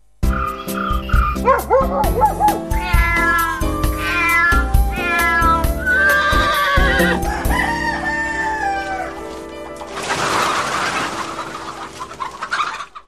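Cats meow loudly and repeatedly, several overlapping cries in a busy stream amid other animal calls, giving way near the end to a harsh, noisy burst. No one speaks.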